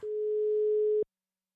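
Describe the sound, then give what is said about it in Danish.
A single steady electronic ringing tone of an outgoing Instagram call sounds for about one second, clear, then cuts off into silence, like an outgoing call ringing on the other end. “Nu ringer jeg til S underscore Margaard på Instagram”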